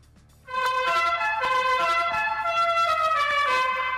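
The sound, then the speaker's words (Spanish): A loud, blaring horn of a pesero minibus sounds for several seconds without pause, its brassy tone shifting slightly in pitch as it keeps honking; the driver, coming up from behind, wants to overtake. No one speaks. “una cosa el claxon, imagínese usted, el señor pecero, y que cuando vas detrás de ti te quiere rebasar como un cafre loco, suena así.”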